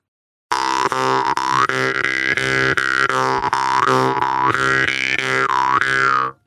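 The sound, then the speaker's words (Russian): A jaw harp twangs in a steady, rapid plucking rhythm, its buzzing drone swelling and wah-ing as breath pushes through, loud for about six seconds with no talking. “Потому что если добавить что-то дыхание, вы слышите мощнее, да, получается?”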